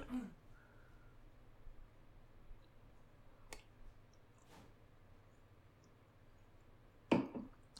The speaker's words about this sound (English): So this is when I'm gonna go ahead and crack this Yuengling open.